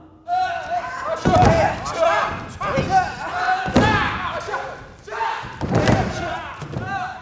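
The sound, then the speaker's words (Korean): Judo athletes practicing throws, their heavy bodies slamming onto the floor again and again, four or five loud thuds at irregular intervals, with shouting and voices of people around them. “네, 운동 선수들이 연습하는 소리입니다. 바닥에 쿵쿵 이 매치기, 엎어치기 하는 소리. 유도 선수들.”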